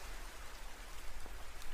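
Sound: rain falling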